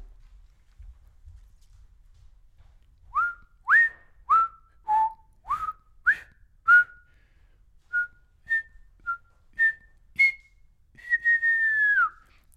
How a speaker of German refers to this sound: So hoch kann ich leider nicht pfeifen.